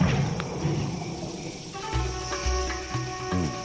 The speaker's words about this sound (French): On entend le lion. Méfions-nous. Il n'est pas loin. Nous sommes en Zambie